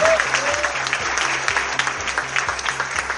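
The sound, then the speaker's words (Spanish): An audience claps steadily and loudly for the evening's host, a dense wash of hand claps with a low rhythmic musical pulse running underneath. “así que vamos a pedir un fuerte aplauso para el conductor de esta noche,”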